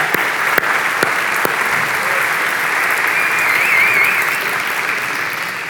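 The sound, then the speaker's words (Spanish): Sustained audience applause for a production team, a dense, steady wash of many hands clapping at fairly even loudness for several seconds, swelling slightly toward the end, with no speech over it. “Así que, ¿te parece si no le brindamos un fuerte aplauso a esa gente que hace un gran trabajo?”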